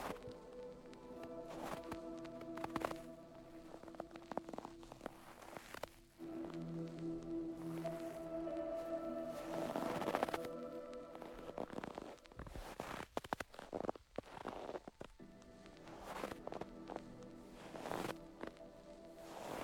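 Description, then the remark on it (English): Crunching footsteps on snow of a person walking outside step along unevenly over a soft, steady tonal drone, with a quicker cluster of crackly steps partway through. “As you walk, the crackle of your footsteps breaks the silence.”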